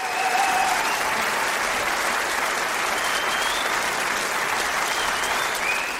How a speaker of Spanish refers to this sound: aquí vamos, vamos a poner un, un espacio de aplausos, nada más.